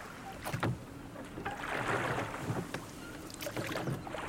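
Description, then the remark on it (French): A small launch, set out from a ship, drawing closer over water, oars dipping and splashing in a slow, repeated rhythm amid gentle lapping and a soft wash of wind under a windy sky, with no voices. “Une chaloupe s'est détachée et s'est approchée de moi”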